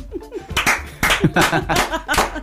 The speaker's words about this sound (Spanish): Sí, preparen sus palmas, por favor.